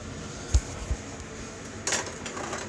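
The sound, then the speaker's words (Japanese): A kitchen exhaust fan runs with a steady, even whoosh throughout, joined by a few brief clinks and knocks like dishes or utensils being handled. No one speaks. “なんか換気扇の音でうるさいねちょっと”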